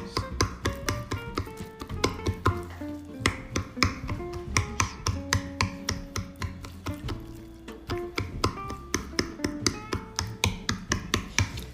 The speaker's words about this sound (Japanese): 食べる時のねこのちょっと硬い繊維とかが残らないように気持ちフォークでいつもこうやってカタカタやってます